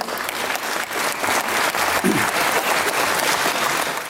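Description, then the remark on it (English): A room full of people applauds during Jim Chalmers' budget speech, for an aspiration to build 1 million new homes, with dense overlapping clapping holding steady and fairly loud for the full few seconds and no one speaking over it. “Yes, Jim Chalmers received his sole round of applause during his budget speech for an aspiration.”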